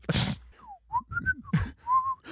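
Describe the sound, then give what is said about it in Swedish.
A person whistles a short, wavering tune, with sliding pitches and brief held notes, broken by a couple of breathy, noisy bursts. “Visslingspyromanen.”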